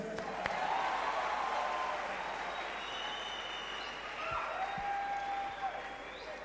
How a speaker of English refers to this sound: Pastors, congratulations and God bless you. Please take your seats. We'll take pictures after. Amen. Are you clapping for them?